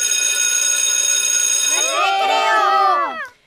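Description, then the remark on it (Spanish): A school bell rings loudly and continuously for a couple of seconds, signaling recess, then a burst of excited, overlapping voices rises over it before everything cuts off abruptly. “Bueno, cuando suena el timbre, ¿qué pasa? Recreo.”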